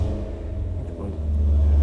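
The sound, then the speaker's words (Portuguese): A BMW E92 V8 engine roars at a cold start, a deep, throbbing low rumble that holds steady and then swells louder toward the end, resonating off a gate, with no voices over it. “ronco de uma E92 V8 BMW.”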